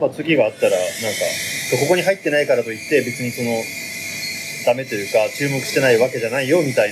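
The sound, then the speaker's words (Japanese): A steady, loud hiss of an espresso machine steaming runs through the background for the whole stretch, while a person talks continuously over it. “今、後ろでエスプレッソマシンが動いてる音が聞こえました。”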